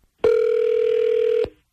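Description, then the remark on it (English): A single ringback tone from an outgoing phone call placed by radio station B98.5: one steady electronic hum, loud and clear, lasting just over a second before cutting off abruptly. No voices are heard. “We're going to get Michelle on the phone first.”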